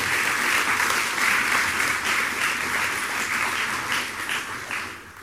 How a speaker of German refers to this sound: Aber wir haben ja gesagt, ja, Applaus für Susanne Dieterle, natürlich.